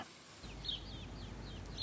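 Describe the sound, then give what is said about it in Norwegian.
Birdsong rings out in a quiet outdoor setting in the small town of Semenivka in eastern Ukraine: a series of short, bright chirps repeating at an easy pace over soft background noise and a low rumble, with no one speaking. “Fuglesangen høres godt, for det er stille i den lille byen Semenivka øst i Ukraina.”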